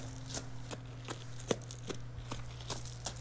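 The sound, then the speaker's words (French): Soft footsteps of a small child passing by tap along at a steady, unhurried pace, about eight light steps in a row, set against a low constant hum, with no voices. “on entend seulement quelques bruits de pas.”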